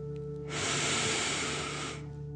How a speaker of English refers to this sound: Breathe in through your nose, filling up your belly, and then out through your mouth, pretending you are breathing fire. Ready? Deep breath in and out.